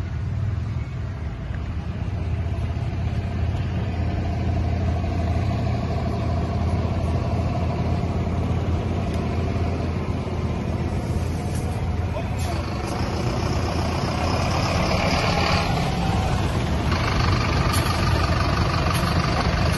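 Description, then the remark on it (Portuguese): Heavy bus engines idle in a steady, loud, low rumble with reversing beeps as buses arrive to take Bolsonaro supporters away from in front of the Brazilian Army headquarters (QG). Indistinct voices and street noise are mixed in. “Ele fez o vídeo ali mostrando a chegada aí de ônibus para retirar os é, bolsonaristas à frente do QG.”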